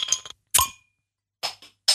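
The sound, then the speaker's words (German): Several bright glassy clinks in quick succession, like glasses of beer being knocked together in a toast, with short gaps between them and a ringing tone after the second strike. “Hier, Prost, Prost, Prost.”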